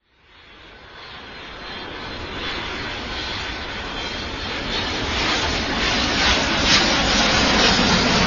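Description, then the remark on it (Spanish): A supersonic jet aircraft roars past, its dense, rushing engine noise swelling steadily louder over several seconds and staying loud, with no voices. “Es ostensible, y todo el mundo lo sabe, que con los aviones supersónicos ya hemos atravesado la barrera de la velocidad del sonido.”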